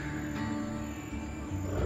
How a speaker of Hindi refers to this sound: दूर से बाघ के गरजने की आवाज आ रही थी